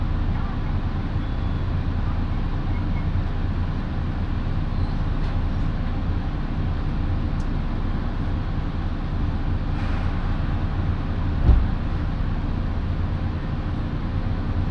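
Steady, loud low rumble of a Minobu Line local passenger train, a one-man service bound for Kofu, rolling along the rails between Shibakawa and Minobu in Japan, with a continuous droning hum and a faint clunk partway through; no one speaks.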